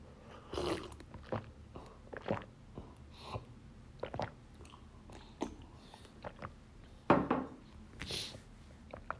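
Someone takes a drink of water: a string of soft, irregular mouth clicks and gulping swallows, fairly quiet, with a couple of louder wet sounds toward the end and no talking.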